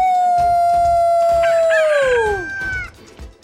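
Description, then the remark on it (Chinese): A storyteller's voice imitates a rooster's crow aimed at a basilisk in a told story: one long, loud, steady high call lasting about three seconds that slides downward in pitch at the end, over a low, pulsing background. “在喔喔喔的啼鸣声中，蛇怪开始膨胀、膨胀、膨胀，它越来越大，越来越大。”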